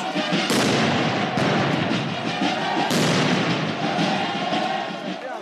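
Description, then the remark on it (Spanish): Protesters throw firecrackers, stones and explosives at soldiers holding shields behind a perimeter fence as they tear down its bars; sharp loud bangs burst around half a second and three seconds, over a continuous roar of crowd noise and shouting voices. “Lanzaron petardos, piedras, derribaron las rejas de la barda perimetral, mientras los uniformados permanecían tras los escudos, soportando una lluvia de proyectiles y explosivos.”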